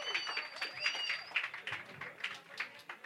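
Steady applause from a group for a singer at a university event, dense overlapping claps lasting about three seconds at moderate loudness, with some high-pitched cheering or whistling mixed in early on.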